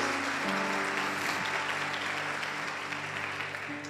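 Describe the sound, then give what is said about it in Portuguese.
An audience applauding the name of Jesus in a steady, dense wash of clapping that holds for the whole stretch, with sustained low organ-like tones humming beneath and no talking over it. “Aplauda o nome de Jesus.”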